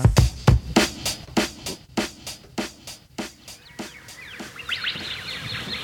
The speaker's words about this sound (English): Listen to those birds.